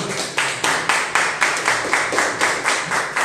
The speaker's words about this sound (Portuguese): Vamos aplaudir o Senhor, amém?